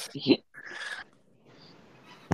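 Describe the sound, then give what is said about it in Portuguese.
A short, fairly loud meow from a female cat rises and falls, with a brief burst of sound just before it and a soft sharp knock at the very end. “Gato, você não vai pular. Não, tá bom, vai. Tudo bem. É a gata gente”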